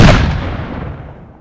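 A single loud cannon shot bursts out with a heavy, deep boom, then rumbles and fades away over about a second and a half, with no voices.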